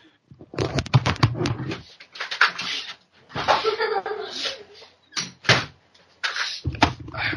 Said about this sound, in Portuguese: Rapidão, vou só fechar a porta aqui pra você não ouvir mais.